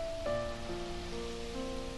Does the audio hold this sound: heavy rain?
yes